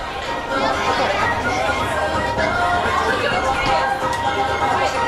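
A dense, steady murmur of crowd chatter fills a busy nightlife street in Kabukicho, Tokyo, by the Robot Restaurant, many overlapping voices blending into a constant hubbub with no single voice standing out.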